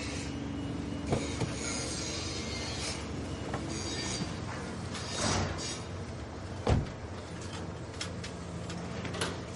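A car door unlatches and opens with a sharp click and clunk against a steady outdoor rumble, with a few softer knocks and rattles, as a woman opens her car in a parking lot in an industrial area.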